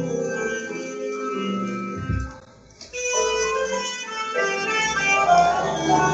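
Tinny, amplified music blares from a loudspeaker truck outside, playing steadily with a brief dip in the middle before swelling back, fairly loud and with no one talking over it.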